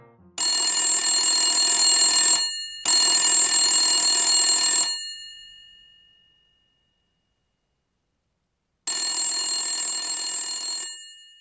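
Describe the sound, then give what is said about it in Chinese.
An old-style telephone rings three times, bright metallic bell bursts of about two seconds each; the second trails off into a long silence before the third ring. No voices. “铃响三次时，他接电话，稍微有点气喘。”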